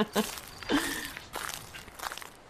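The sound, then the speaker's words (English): A few crunchy footsteps shuffle, uneven and scuffing rather than evenly paced, with faint background noise between steps. “That is called walking.”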